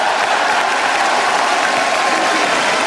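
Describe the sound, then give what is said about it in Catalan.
A large crowd in the Plaça del Blat in Valls applauds steadily after a castell (human tower), a loud, dense wash of clapping throughout with massed voices and the usual chants blended into the din, resonating across the plaza. “perquè això s'ha de viure de prop, aquests càntics habituals, aquests aplaudiments.”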